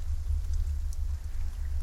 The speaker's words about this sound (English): The soft percussion of the rain on leaves and puddles splashed like a thousand stealthy footsteps all around her.